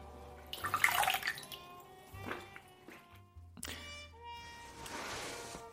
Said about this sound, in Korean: 자, 이제 꽃피는 봄 3월도 됐으니 이 원다방 대청소를 한번 하려고 해요. 이 대청소의 핵심은 바로 물걸레질.